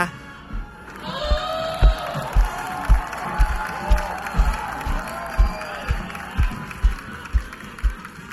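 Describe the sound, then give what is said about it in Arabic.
A large crowd at the governor's procession bursts into loud cheering and applause after a brief quiet moment, as the governor waves from the back of a large elephant. Underneath, a steady rhythm of low thumps beats about twice a second. “أطل علينا والينا المعظم ملوحا للجماهير بكبرياء من على ظهر فيل كبير كبير الحجم وجن جنون الناس”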